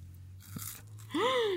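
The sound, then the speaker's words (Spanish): A brief crunch of someone biting into a crisp Oreo cookie ball, followed by a short voiced hum of reaction, over a faint steady low background hum. “Muérdelo de plano.”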